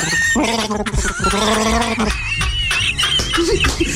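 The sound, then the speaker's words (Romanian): A voice imitates the growling roar of Chewbacca the Wookiee in an imitation contest: loud, strained bleating howls that rise and waver, repeated over a few seconds, with bursts of laughter mixed in. “Deci este concurs de imitat Ciubaca între da.”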